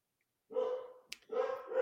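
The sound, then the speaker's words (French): A dog barks excitedly in two sustained, high-energy bursts separated by a brief pause, loud and clear with no talking over it. “Ben, tu vois, même mon chien s'anime et tout excité, tout content.”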